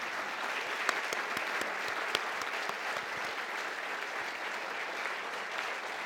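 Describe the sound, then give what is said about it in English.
An audience applauds Ambassador Marie Yovanovitch as she comes up to the stage, steadily for about six seconds, a dense wash of many hands clapping at an even loudness, with a few sharper individual claps standing out and no voices over it. “Uh, please give a round of applause for Marie as she comes up.”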